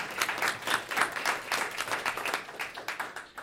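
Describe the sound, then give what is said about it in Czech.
An audience at a public debate in the Hradec Králové city library applauds, a dense patter of many hands clapping at a steady moderate level for a few seconds, with no talking over it. “Dobrý den, můžete si zatleskat.”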